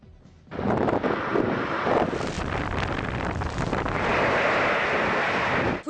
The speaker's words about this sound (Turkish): Kuvvetli lodos hemen hemen tüm yurdu esir aldı. Geceden sabaha pek çok şehirde fırtına devirdi, kopardı, uçurdu.